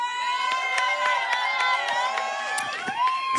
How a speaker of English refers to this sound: Et s'il vous plaît, on, on, applaudit aussi bien fort nos performeuses.